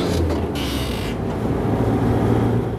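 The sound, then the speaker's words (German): A steady low rumble of dense road traffic heard from inside a moving vehicle crossing the Marienbrücke bridge toward the city on a sunny afternoon, with engine drone and a brief brighter whoosh of passing cars early on, constant and fairly loud throughout. “Unsere Fahrt führte uns an diesem sonnigen Nachmittag über die Marienbrücke in Richtung Stadt. Der Verkehr zu der Uhrzeit war recht dicht.”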